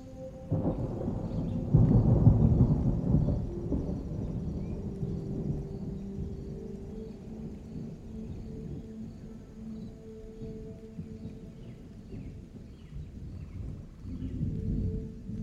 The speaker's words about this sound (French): Au loin, les prémices d'un orage commencent à se faire entendre.